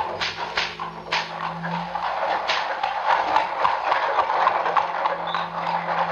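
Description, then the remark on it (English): Horse hooves clip-clop steadily while the heavy wheels of wagons rumble and rattle over rough ground, rolling out of a castle courtyard and down a rocky way, the sound continuous, with no voices. “In the courtyard and down the rocky way, the roll of heavy wheels, the crack of whips.”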